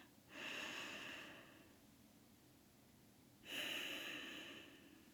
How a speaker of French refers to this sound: Et à ce moment-là, moi, je vous invite toujours à prendre trois respirations, à inspirer en comptant trois, en expirant en comptant trois, encore une autre fois. Une dernière respiration.